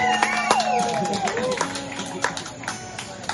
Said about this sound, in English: Uh, ladies and gentlemen, a round of applause to our team, our technical team making it happen, baby.